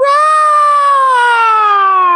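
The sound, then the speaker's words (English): A voice imitates a singer's screechy, off-key sung note from a live TV performance: one loud, shrill, sustained tone that wavers briefly, then sags steadily flat in pitch over about two seconds, with no other sound. “and she like fell, like the note fell. It was like a screech.”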